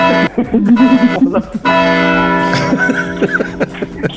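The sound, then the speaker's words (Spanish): A church bell tolls with a long, ringing tone that hangs in the air, while people talk and laugh loudly over it. “Es que solamente está esa campana del efecto.”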